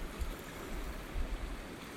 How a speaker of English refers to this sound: And that's the sound of a river running alongside it, going through a couple of tunnels just underneath the road the woods that we're sat, currently sat in.